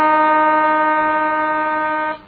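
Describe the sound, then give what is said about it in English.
A loud, steady half-time siren at a football match between Ainslie and the Queanbeyan Tigers blares for about two seconds on a single sustained tone rich in harmonics, then cuts off abruptly with a brief fading tail. “Half time siren couldn't come quickly enough for the Tigers.”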